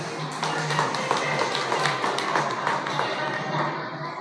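An audience of students and parents at a school writing class applauds steadily, many hands clapping in a dense, continuous patter at an even loudness for the whole stretch, with no voices standing out above it.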